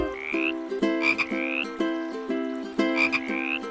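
Bullfrogs croak in a steady, repeating rhythm, each deep resonant call paired with a rising, whistle-like tone. The croaks are loud and continuous, with no talking.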